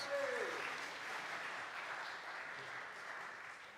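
An audience applauds steadily, a dense crackle of many hands clapping at an even, moderately loud level throughout, with a brief high whistle or cheer near the start.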